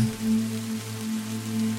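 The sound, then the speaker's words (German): Steady, even rainfall of an approaching thunderstorm hisses without pause, a dense wash of drops over a low, constant humming drone; no voices and no thunder are audible. “Und es kommt ein kühler Wind auf du denkst, ja, bekommst du jetzt langsam ein bisschen Angst, weil es dunkel und äh, kalt und das Gewitter kommt näher.”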